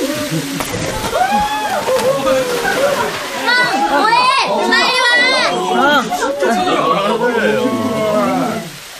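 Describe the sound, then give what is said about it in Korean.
A crowd of voices shouts and whoops together outdoors in a valley by a waterfall where men are diving from a cliff, loud and overlapping for several seconds, with a faint wash of splashing water underneath before the din cuts off. “쏟아지는 물소리와 사람들의 함성 소리를 따라 계곡을 거슬러 올라갔다.”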